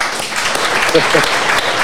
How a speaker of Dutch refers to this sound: Even applaus